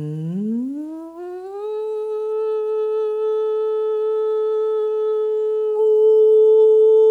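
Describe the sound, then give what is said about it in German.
As a vocal exercise, a single sung voice hums an "ng" that glides smoothly upward in pitch, holds a steady high note, then opens into a sustained "oo" (U) vowel that sounds slightly louder. No one speaks. “Beginnen zum Beispiel mit dem Vokal U und hängen den einfach an so ein NG-Glissando dran. Das klingt dann so.”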